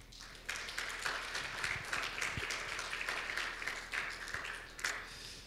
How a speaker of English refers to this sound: So once again, give yourselves a, a round of applause.